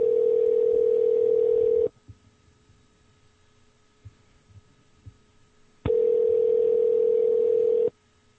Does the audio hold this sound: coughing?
no